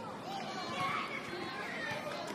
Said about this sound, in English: Sounds like school is out. We're about to get mobbed by a bunch of little black kids in bell bottoms. Watch yourself.